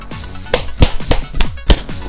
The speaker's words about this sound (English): There you go. You actually get a real life applause.